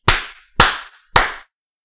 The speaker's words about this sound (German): Wundervoll. Einfach wundervoll. Ich finde, es gibt kaum jemanden, der mit so viel Grazie und so viel Impact klatschen kann wie du.